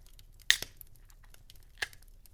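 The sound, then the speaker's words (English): A beer can cracks open into a microphone with a sharp, bright snap and a brief fizzy rasp, followed a moment later by a second, smaller click. Fairly quiet, with no talking. “I'm actually going to do what I like to do on these farewell episodes and crack a beer, which you will hear in the microphone here.”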